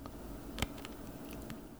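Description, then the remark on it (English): A small grain of spelt wheat is bitten once with a soft, brief crunch, followed by a few faint, quiet chewing clicks; no one speaks. “And if you take a grain of spelt,”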